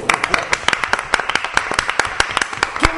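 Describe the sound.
A group applauds for about three seconds: loud, sharp handclaps in a fast, uneven patter, with some voices faintly mixed in beneath.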